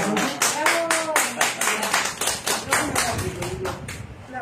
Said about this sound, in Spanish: Me falta aplauso.